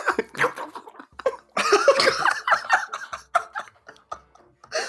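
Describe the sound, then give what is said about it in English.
A person imitates, with their mouth, the squelching noise of creatures scurrying: a wet, gurgling squelch in a string of short, uneven bursts, with some laughter mixed in. “oh, oh, they, that mm, that squelching noise they make as they scurry.”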